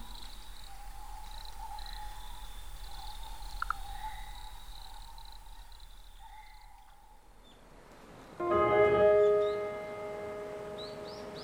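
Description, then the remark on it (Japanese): Night forest ambience on Amami Oshima, Japan, recorded by nature sound artist Joe Okuda: steady, overlapping insect and frog trills hum continuously, then a louder, harmonic call rings out near the end before fading back. “今週は自然音録音家ネイチャーサウンドアーティストジョ奥田さんのインタビューそしてジョーさんが録音した奄美大島の夜の森の音をお届けしました”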